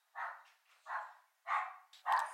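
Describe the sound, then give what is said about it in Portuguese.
A female dog barks four times in a quick, steady series, each bark short and sharp with a slightly hoarse edge, heard alone. “Vou esperar minha cachorra.”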